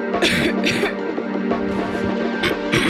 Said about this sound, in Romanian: Tuse.